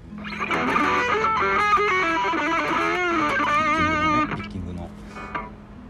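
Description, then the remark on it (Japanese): A distorted electric guitar, played solo without warming up, plays a rapid run of notes with bends and vibrato, loud, for about four seconds before ringing out and fading. “ちょっとウォーミングアップしてないんで雑ですけどギター単体で聞くと雑でしょ私も、まそんなんただただ早く弾くだけなんですもうあんまりピッキングの。”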